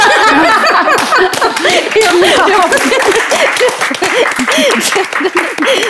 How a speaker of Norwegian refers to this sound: Eller så eh, tror jeg kanskje bare vi sier Da klapper jeg for dere.